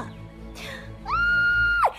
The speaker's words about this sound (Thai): เมื่ออาเหล่ากับภรรยาเห็นดังนั้น ฝ่ายภรรยาก็กรีดร้องออกมาจนสุดเสียงว่า